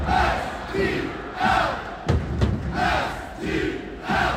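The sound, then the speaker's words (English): A sold-out soccer stadium crowd of St. Louis City SC fans at City Park chants in rainy weather during a playoff match against Kansas City, a steady, rhythmic roar with voices rising and falling in regular waves, and a couple of sharp bangs or claps cutting through midway. “The results and rainy weather did not dampen fans' spirits last night in a sold out City Park.”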